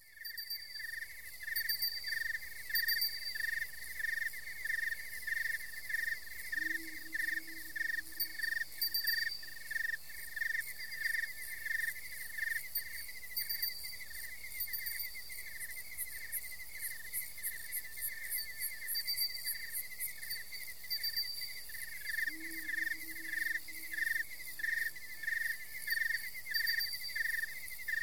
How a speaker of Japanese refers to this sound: あの石垣島から西へ約30キロぐらい行ったとこですかね台湾とほぼ同じあの高さの結構厚いここはまあ昔ながらの本当に神秘的な森の、まあ、中の音ですね。あのちょっと聞いてみましょうかじゃあ。はい。原生林の虫の音